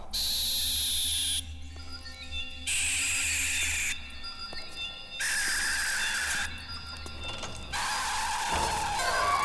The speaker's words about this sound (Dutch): Ja, nu blaas ik op dit fluitje, hoor.